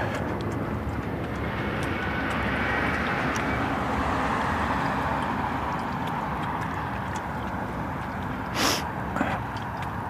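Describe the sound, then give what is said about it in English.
An air ambulance helicopter flies overhead on a sunny morning, its steady, rumbling engine drone filling the air at an even loudness throughout, with a brief sharp burst of noise near the end. “Sounds like air life.”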